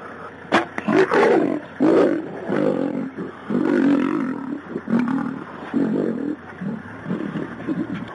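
A lion roars in a run of deep, rumbling bursts, each loud growl swelling and fading before the next, continuing steadily for several seconds with no one speaking.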